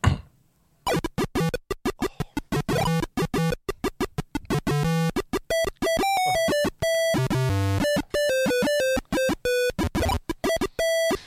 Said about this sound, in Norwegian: Ok, Her er okay. PC-theme fra, fra Secret of Monkey Island.